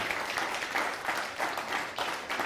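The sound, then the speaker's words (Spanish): A crowd applauds steadily for the Almighty during a Counting of the Omer prayer, a dense, continuous wash of many hands clapping at an even level throughout, with no voices heard over it. “Dale un fuerte aplauso al Todopoderoso.”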